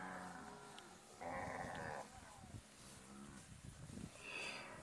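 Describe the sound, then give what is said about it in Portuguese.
Several cows bellow and low in overlapping calls at a corral at almost two in the morning, before dawn, one long, loud bellow standing out in the middle, with more moos trailing off and rising again toward the end. No one speaks. “Agora já são quase duas horas da madrugada, o dia logo vai raiar mas assim que eu estou me aproximando do curral, já escuto as vacas berrando, como se fosse para apartação, mas não é apartação.”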